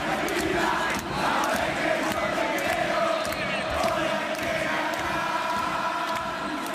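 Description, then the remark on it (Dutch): A massive crowd of Argentine football fans chants together at a 2018 World Cup match in a steady, roaring wall of voices, with sustained sung tones rising over dense, continuous noise and occasional sharper shouts. “Eh, dit zijn Argentijnse voetbalfans tijdens een WK-wedstrijd uit 2018, het vorige WK.”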